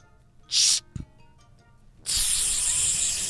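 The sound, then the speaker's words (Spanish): A voice imitates a hiss as a riddle, giving a short sharp burst and then, after a pause, a longer sustained hiss that runs to the end, fairly loud, with no talking. “Es una plática de una señora que está en la biblioteca con una serpiente.”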